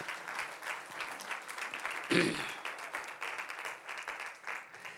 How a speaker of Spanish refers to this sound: Amén, gloria a Dios. Y dele una ofrenda de palmas a Cristo también.